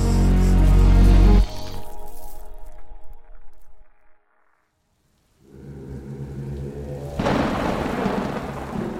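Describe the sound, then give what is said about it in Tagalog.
A loud, booming thunderclap rolls out and fades into steady rain. After a brief silence, the rain returns as a dense, hissing downpour with low rumbling underneath. “Isang gabing umuulan ay pumapasada ang isang baguhang taxi driver.”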